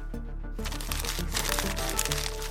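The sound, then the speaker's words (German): Crackling crunches of a newspaper being angrily crumpled into a ball, a dense run of small snaps lasting a couple of seconds over a steady low musical drone. “Wütend zerknüllt er die Zeitung zu einem Ball, schleudert sie über das Büro und schreit: Dieser aufgeblasene Kerl, wir werden es ihm zeigen!”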